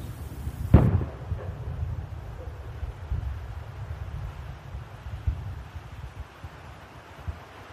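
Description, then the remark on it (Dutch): Cannon fire in the final seconds before the armistice that ended the First World War in Europe: a single sharp cannon blast cracks out near the start, then a deep, steady rumble lingers like battlefield noise with faint low thuds. No voices. “Je hoort de kanonnen nog, de kogels die fluiten, de laatste mensen die vallen.”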